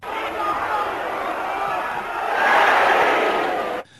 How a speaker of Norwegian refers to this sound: Den lyden håper vi ikke å høre på stadion i år. ja, Vi kan godt ha så mange folk, da. Ja, ja det kan ja. vi. Eh, men det, var, det, hørtes jo sånn ut om det var 50 stykker på Gamle Kristiansand stadion.